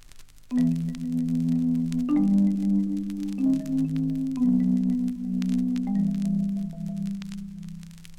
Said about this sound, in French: Marimba.